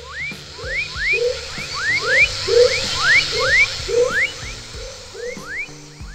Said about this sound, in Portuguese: Na hora que os sapos cantam juntos, eles ficam parecendo uma orquestra mesmo. Mas se você prestar atenção, dá para perceber que tem vários sons diferentes no meio dessa sinfonia.